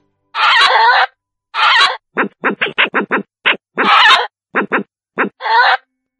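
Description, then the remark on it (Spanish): A badger calls loudly with harsh, raspy screams: several drawn-out squalls broken up by quick runs of short, sharp yelps, with no voices around it. “No, ahora en serio, va, ponemos un extracto del sonido que hace un tejón.”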